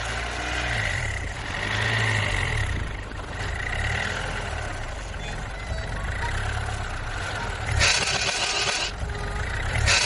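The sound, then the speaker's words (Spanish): A Mustang car engine runs roughly, rumbling low and sputtering unevenly, with louder rasping bursts near the end, then stalls; no one speaks. “El coche tosió, renqueó y se caló.”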